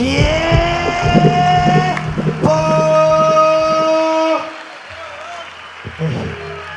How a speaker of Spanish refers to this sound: Un aplauso más fuerte, por favor, Concepción. Un aplauso más fuerte, hermanos, damas y caballeros.